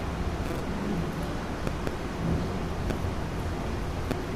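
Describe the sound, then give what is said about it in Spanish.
Steady applause from a large concert audience greets the conductor as he enters before the second part of an orchestral concert, a dense continuous patter of many hands clapping at once, with no voices. “Y en este instante escuchamos que va entrando el maestro y El aplauso lo recibe y con esto damos paso a la segunda parte del concierto”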